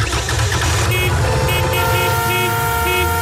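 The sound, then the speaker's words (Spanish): Several car horns honk loudly and persistently at a motorbike that has seized up in the middle of the road on the way to work, over a steady rumble of street traffic, some short toots and some long sustained blasts overlapping throughout. “Cuando se te gripa la moto en mitad de la calzada y de camino al trabajo, suena así.”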